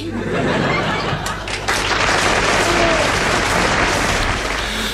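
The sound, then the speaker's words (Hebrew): Sustained audience applause at a conference after a song performance fills the whole stretch, a dense, steady clatter of many hands clapping at once, loud and even from start to finish with no talking over it. “מחיאות הכפיים”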